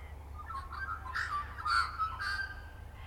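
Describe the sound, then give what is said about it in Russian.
Australian magpie song: a run of warbling, fluting notes with bursts of brighter, higher phrases, moderately loud over a steady low hum, with no voices. “В обычное время макпай очень странно, но очень красиво поют, э, как будто роботы.”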